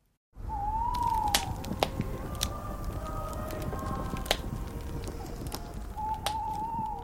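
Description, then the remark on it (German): A recreated, not real, bonfire imitating an 18th-century Christmas Eve mountain fire crackles steadily with a dense roar, broken by scattered sharp pops and snaps, while a thin whistling hiss rises near the start and again at the end. “Ein schönes, gemütliches Lagerfeuer.”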